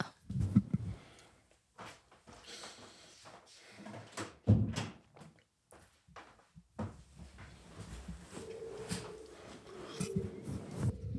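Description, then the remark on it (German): A door being closed: a few moderately loud wooden clunks and knocks with scraping movement between them, followed by a low, steady hum in the background. “Mach mal kurz die Tür zu.”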